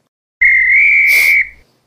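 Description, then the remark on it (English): A person whistles a single loud, steady note held on one pitch for about a second, slightly rising, with a breathy hiss near the end before it cuts off. “That's a good whistle, right?”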